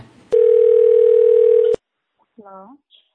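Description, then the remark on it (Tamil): A single long, steady telephone call tone, loud, holds for about a second and a half, then cuts off into quiet before a brief spoken sound; a call to Dr. Vijayakanth's office line that did not get through. “அதனால வந்துட்டு நம்ம டாக்டர் விஜயகாந்த் அவர்களோட ஆபீஸ்க்கு வந்துட்டு நம்ம ட்ரை பண்ணிருப்போம் அதுக்கான லைன் வந்துட்டு கிடைச்சிருக்காது”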